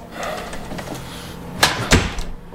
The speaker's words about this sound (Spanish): Cierra la puerta.